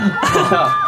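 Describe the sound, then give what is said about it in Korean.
A short, dense burst of a crowd-cheering sound effect, many voices shouting and whooping together at a steady, fairly loud level throughout. “밖에 오. 엔진들 소리 질러!”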